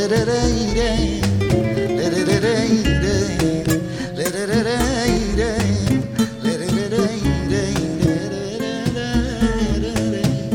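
A recorded song plays steadily: a male singer's expressive, wavering vocal line carried over a busy acoustic guitar accompaniment with bright plucked strings, full throughout.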